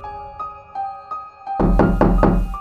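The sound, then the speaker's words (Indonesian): A door handle rattles and jiggles in quick repeated bursts as someone tries to open a bedroom door in a boarding house, starting faint behind a steady ringing tone, then turning loud and forceful as the door is shaken hard. “Lagi-lagi seperti ada seseorang yang memainkan gagang pintu dan mencoba untuk membuka pintu kamarnya.”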